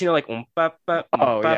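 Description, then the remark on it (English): A voice vocally mimics classic circus music with a few short, pitched "ba" syllables separated by pauses, mixed with hesitant filler talk. “The, the, classic circus,”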